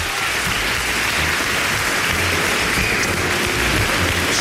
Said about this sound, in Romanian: Deci, încă o dată, aplauze pentru toți cei care au fost implicați în acest proiect. Așa, mulțumim foarte mult.